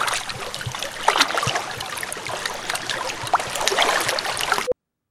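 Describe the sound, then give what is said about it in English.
Water laps and sloshes steadily, with small splashes breaking through a constant watery wash, until it cuts off abruptly near the end. “Because A, the sound of waves isn't very helpful when reporting the news, and B, kind of freaks me out.”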